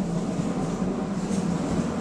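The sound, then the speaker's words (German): A steady, droning rumble of an S-Bahn commuter train going by outside the window, muffled as if heard through the window, with a constant low roar and no talking. “Also auf das Fenster S-Bahn kommt.”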